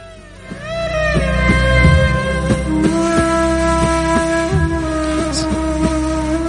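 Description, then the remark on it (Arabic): A breathy ney flute plays long, sliding held notes over a steady rhythm of frame drum hits, with no voices; the music is loud and fills the whole stretch. It is background music chosen by the radio station's production team. “هذا فقط دفوف وناي دفوف وناي وهي في عموم كل اختيارات فريق البرودكشن في الاذاعه”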